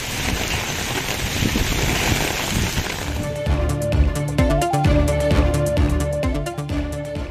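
A steady, dense hiss of summer rain falling in Tamil Nadu fills the first few seconds, then a rhythmic music track with sharp beats and a melody comes in and takes over.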